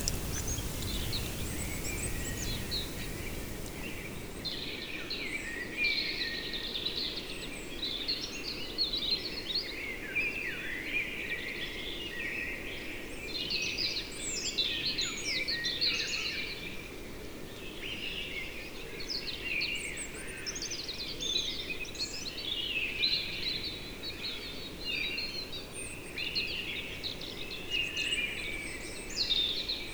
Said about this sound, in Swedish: Och nu när regnet har stillnat så drar ju alla fåglar igång. Värsta trastkonserten här utanför.